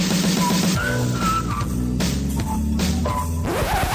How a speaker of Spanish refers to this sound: Oye, te tengo, pónganme música de chisme.